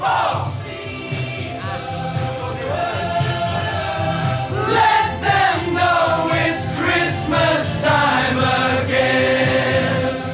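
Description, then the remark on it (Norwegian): A group of star singers, standing packed together in a small studio, rehearses a song's chorus for the very first time, with sustained, harmonised notes over steady backing, the blended singing swelling louder midway and holding at a full, even level to the end. “Og her hører vi at de øver på refrenget for aller første gang.”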